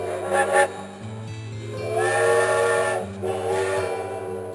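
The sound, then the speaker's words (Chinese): A steam train whistle blows in long, sustained, harmonically rich tones, with a brief pause and a shift in pitch partway through, over a steady hiss of steam. No one speaks. “这就是风叉火车的声音。”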